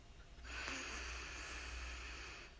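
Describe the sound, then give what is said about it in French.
A single slow, deep inhale drawn steadily through the nose or mouth for about two seconds, breathy, with no talking around it, as a person settles comfortably into slow, deep breathing. “Donc ce que vous allez faire là, c'est que vous allez juste vous installer confortablement et vous mettre dans une respiration lente et profonde donc vous inspirez”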